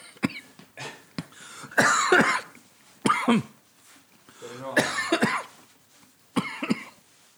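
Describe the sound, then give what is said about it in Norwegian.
A person choking on candy coughs hard in a repeated fit of harsh, wheezing bursts, loud, with strained gasps between the coughs. “Kanskje du skal slå han bak på ryggen først?”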